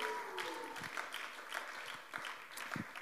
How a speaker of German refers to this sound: Jetzt, ich könnte mal kurz einen Applaus geben für die beiden hier, richtig cool.